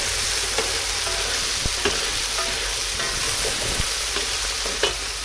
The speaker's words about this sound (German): So, die Zwiebeln haben jetzt wunderschön Farbe. Das Fleisch auch, ihr hört das, rutschelt schön.